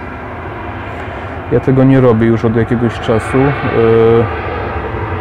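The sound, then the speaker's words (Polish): A steady, broad roar of an airplane flying overhead near an airport fills the background throughout, loud and constant, while a man talks over it in the foreground. “przepraszam za te samoloty, no ale jak się mieszka blisko lotniska, to trzeba się z tym liczyć.”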